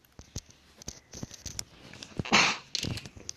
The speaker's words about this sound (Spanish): Ay, estoy estornudando.